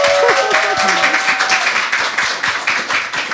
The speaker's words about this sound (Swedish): Vi tar en applåd!